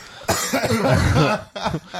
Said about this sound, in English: Here I go. I'm even going to keep the cough in there.